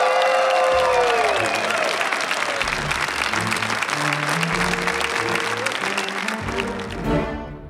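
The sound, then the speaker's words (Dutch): A concert crowd applauds loudly and steadily for several seconds, the dense clapping mixed with shrill whistles and scattered cheers before it begins to thin out at the end. “Zo Amerikaans, eh, applaus ook,”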